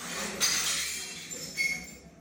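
Glass shatters in a sharp, bright crash, followed moments later by a second, smaller burst of breaking and clinking shards, with no voices, as the president of Asodemus breaks glass during a conflict at the UAS.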